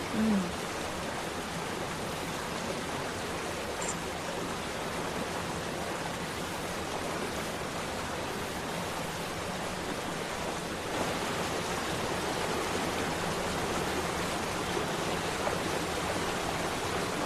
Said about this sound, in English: The water is quite loud, yes.